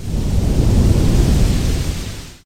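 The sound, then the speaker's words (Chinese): A deep, roaring rumble of thunder holds steady at a fairly loud level for a little over two seconds, heavy in the low end, then stops abruptly. No voices. “他走了好远好远，越过了群山，遇见了老虎，遇见了雷电，”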